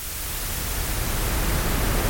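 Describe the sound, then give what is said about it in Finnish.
A steady, even rushing noise like constant rain, a broad hiss that holds at the same level without breaks for the whole moment, with no voices over it. “Tämä on, tää on niinku enempi semmonen, mikä tulee vaikka tasaisesta sateesta.”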